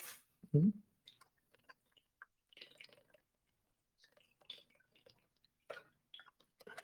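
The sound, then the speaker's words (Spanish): Someone drinks a little water: a louder gulp near the start, then a series of soft, wet swallows and mouth clicks spread over several quiet seconds, with no talking. “Voy a tomar un poquito de agua.”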